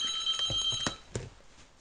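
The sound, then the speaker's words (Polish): A phone rings with an incoming call, a steady, high-pitched electronic tone, moderately loud and continuous, broken by a couple of short thumps. No one speaks. “I yy, znowu ktoś mi dzwoni.”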